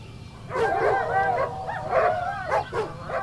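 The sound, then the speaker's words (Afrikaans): A pack of village dogs charging toward an intruder bark and yelp together in a loud, overlapping flurry, the barks coming in quick irregular bursts over a few seconds, with no one speaking. “Toe sy 'n groot lawaai hoor.”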